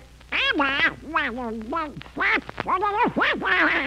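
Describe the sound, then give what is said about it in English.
A loud voice squawks in a rapid burst of duck-like quacking cartoon speech, the voice of Donald Duck, several garbled phrases in a row with brief pauses between them. “Oh, are you Donald Duck?”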